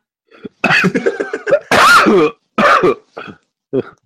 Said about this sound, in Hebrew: לבריאות.